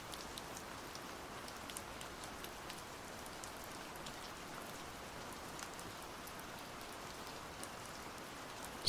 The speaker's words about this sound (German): Gott sei Dank regnet es.